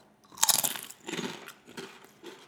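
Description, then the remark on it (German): Crisp crunching of Hungarian potato chips being bitten and chewed, a loud first bite followed by several softer, rhythmic chewing crunches, with no talking. “Wir haben heute auch Chips dabei, weil wir noch einmal ein Revival machen, zurück zu den Anfangszeiten.”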